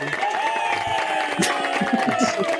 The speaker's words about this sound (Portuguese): Eu tenho outro aplauso.